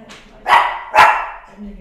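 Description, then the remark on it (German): A dog barks twice in quick succession, sharp and fairly loud, with a faint voice starting up just after the second bark. “Wir mögen auch mal das Bellen im Podcast, genau.”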